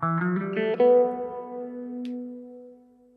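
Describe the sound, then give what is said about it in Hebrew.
A few quick plucked string notes climb upward on a stringed instrument called the Sirena, fitted with a special pickup that gives sustain. A final note rings out clearly and sustains for a couple of seconds while the string keeps vibrating, slowly fading away. No voices. “אם בכלי מיתר שומעים צליל כל עוד המיתר רועד, או רוטט, כזה נניח.”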